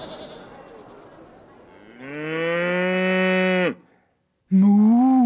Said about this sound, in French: la vache de la Grunevore vous salue